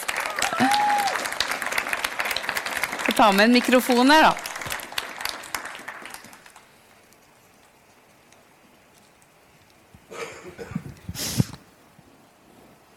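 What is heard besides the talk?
audience applause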